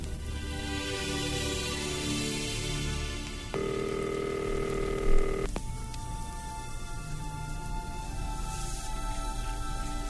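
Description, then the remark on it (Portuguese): A telephone being dialed: a steady electronic tone sounds for about two seconds over a constant low hiss, with a small click near its end and no voices. “Eu, eu posso usar o seu telefone”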